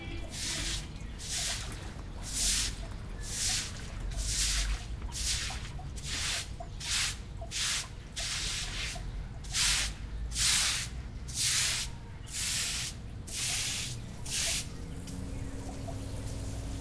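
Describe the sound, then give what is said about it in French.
Bursts of water spraying in a steady rhythm, roughly a dozen hissing pulses over a low background rumble, as a woman waters trees in her garden with a hose using mains water; no one speaks. “Est-ce que regando sus árboles?”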